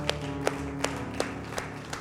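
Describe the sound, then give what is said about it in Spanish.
Steady, evenly spaced hand claps, about six sharp beats in two seconds, ring out clearly over a sustained musical drone in the background. “Un aplauso.”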